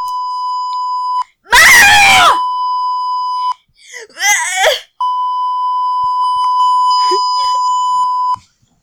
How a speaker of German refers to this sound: bist du fertig mit Schreien? Ja. Super. Manchmal muss man sich auch einfach mal alles rauslassen, auch wenn es im Podcast ist.